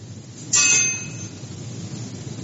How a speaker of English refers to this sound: off the couch, and she fell into the, uh, uh, the, you know, the fence that goes around the fireplace.